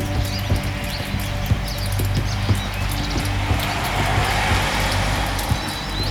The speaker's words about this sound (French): voiture qui passe.